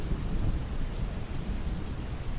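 Steady heavy rain starts pouring down on people walking to a party, with a deep, continuous rumble of thunder rolling underneath, a dense wash of sound with no voices.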